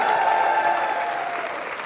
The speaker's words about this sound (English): Give Jesus a great big hand clap one more time tonight.